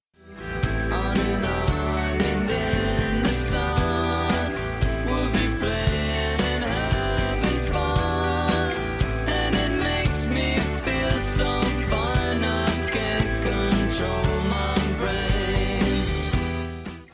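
An upbeat pop rock song plays at steady full volume, with a bright bouncy band groove of guitars, bass and drums carrying a relaxed, cheerful melody throughout.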